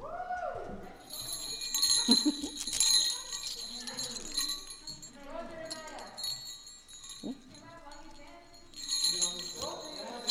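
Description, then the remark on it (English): Jingle bells shaken in a few bright, rattling bursts, a high shimmering jangle that swells and fades, with indistinct voices sounding underneath. “Here's some jingle bells here, too, if anybody wants jingle bells.”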